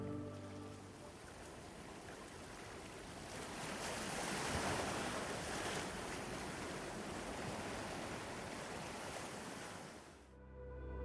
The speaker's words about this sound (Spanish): Recuerda los sonidos que te acompañaban al ver el atardecer. Tal vez el suave sonido del agua